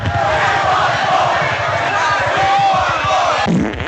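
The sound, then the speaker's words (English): A loud crowd of protesters around the city center chants and yells together for more toilet paper in the truck stops, a dense wall of voices with a steady rhythmic pulse running underneath, continuing for several seconds before it shifts abruptly at the end. “But that didn't stop the stuffiness from breaking out around the city center, where protesters were yelling for more toilet paper in the truck stops. They were chanting.”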